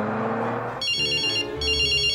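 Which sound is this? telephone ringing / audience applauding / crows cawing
telephone ringing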